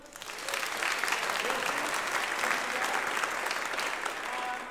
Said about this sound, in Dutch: Kun nog één keer de band een applaus geven?